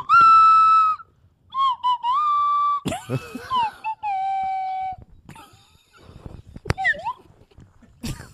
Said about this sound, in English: You want a slide whistle after that? Yeah, sure. Go ahead. I'll give him a slide whistle. He ah. deserves it. Well, let me try to do taps.